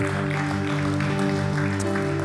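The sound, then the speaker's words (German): Audience applause at a church service for those who have just decided to make God their Lord, a steady wash of clapping that runs through the whole moment, blended with a sustained, held musical chord underneath. No one speaks. “Komm, lass uns zusammen aufstehen und denen, die diese Entscheidung getroffen haben, nochmal einen Applaus geben, ey.”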